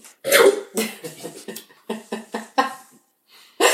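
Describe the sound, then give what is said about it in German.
A fit of coughing after choking on water: a strong opening cough followed by a rapid, rhythmic string of harsh, raspy coughs, a short pause, then one more loud cough. “Hast also du verschluckt? Ja. Ab. Am Wasser. Schon wieder.”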